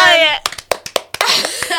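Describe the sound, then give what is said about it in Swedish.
A short burst of hand clapping, about six sharp, evenly spaced claps, with voices talking and exclaiming just before and after. “Applåder!”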